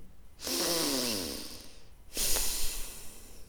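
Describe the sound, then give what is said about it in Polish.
A person imitates snoring through the nose, loud: a long rattling inhale with a low buzzing tone, a short pause, then a second breathy, snorting snore. No talking. “I ty chrapiesz?”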